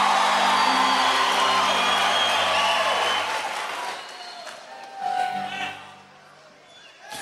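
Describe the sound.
A loud audience at a religious service shouts and cheers together in answer to a preacher's call to shout glory and hallelujah, a dense roar of voices with whoops and sustained cries that gradually thins out, with a few scattered shouts rising again near the end.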